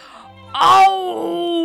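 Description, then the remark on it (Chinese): A human voice imitates a lion's roar: one loud, drawn-out, moaning "aow" that swells suddenly, then trails off into a lower, sustained groan. “话音刚落，他就听见了一声大吼。”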